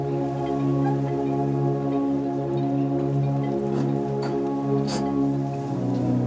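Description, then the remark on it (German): Soft, gentle waves lap and splash against a harbor wall, with a few sharper splashes partway through, over a steady low hum. No one speaks. “Nur die zarten Wellen, die an die Hafenmauer herangetragen werden, kann man leise plätschern hören.”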